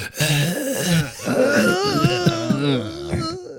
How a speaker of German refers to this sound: Es ist ganz schön schwer zu flüstern und gleichzeitig so rumzustöhnen. That's what she hm. said. Es klingt dann mehr so, als würde man richtig, richtig hart aufs Klo müssen gerade.